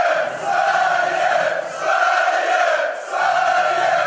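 A large crowd of Swedish supporters chants "Sverige!" together in loud, sustained unison, the massed voices rising and dipping in a steady repeating phrase roughly every second and a half.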